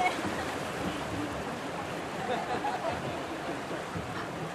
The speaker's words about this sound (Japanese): 波が波っていうのかな水がチャプンチャプンって割と荒い感じにも見えますねもっと静かなのかと思ってました